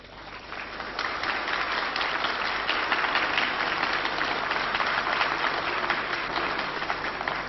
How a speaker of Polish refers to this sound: Sądząc z oklasków nie muszę tego uzasadniać. Atmosfera jaka panuje jest jasna.